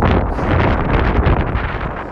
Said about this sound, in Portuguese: Nossa, o vento fez o guarda-chuva bater no meu rosto.